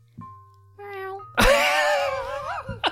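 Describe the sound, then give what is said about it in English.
A person imitates a cat, giving a soft tonal lead-in and then one loud, drawn-out meow with a wavering, falling pitch, with no other talking. “You should um, make like a cat noise.”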